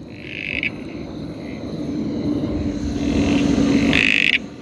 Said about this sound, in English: That sounds pretty good. And that's the playback. So that's the copper-backed toadlet is one option. The copperback toadlet. And the scientific name of that is? Pseudophryne ravenia or something.